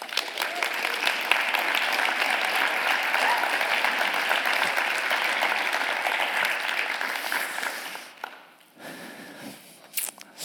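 An audience applauds steadily, a dense, even clatter of many hands for about eight seconds before it quickly dies away, followed by a short sharp sound at the end.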